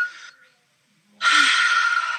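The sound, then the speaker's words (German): A short breath in, a brief pause, then a long, loud, airy exhale, demonstrating slow relaxed breathing with no talking. “so atmen, als würde ich nicht mit den äh, Eltern oder Schwiegereltern am Weihnachtstisch sitzen,”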